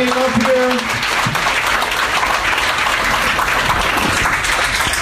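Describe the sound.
A crowd breaks into sustained, loud applause that fills the whole stretch, with a voice briefly audible at the start before the clapping takes over, dense and steady throughout.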